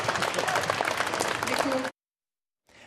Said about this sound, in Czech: Zatleskáme kolegům. Děkuji, kolegové.